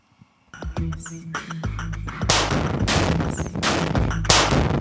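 The 10,000 Year Clock, a large mechanical clock being built in West Texas, chimes its bells with music from Brian Eno, deep sustained ringing tones overlapping as louder metallic clangs and a dense mechanical wash come in partway through, with no voices.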